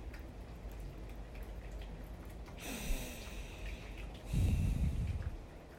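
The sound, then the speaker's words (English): Soft, steady rain patters against a window with scattered light taps throughout, while a couple of breathy exhalations briefly rise above the quiet hiss. “You're just allowing, like for me, I'm hearing the rain. I love it. I'm allowing the rain to tap on the window.”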